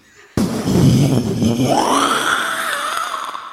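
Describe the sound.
A person, asked to make a loud thunderclap, imitates it with their voice: a sudden explosive burst, then a rough, rumbling growl that stretches into a drawn-out groan, loud for about three seconds.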